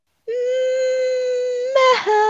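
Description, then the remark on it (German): A dog whimpers with one long, steady, high-pitched whine that breaks into a short rough yelp, then resumes briefly at a slightly lower pitch. No one speaks over it. “Grüße vom Hund. Hallo Hund.”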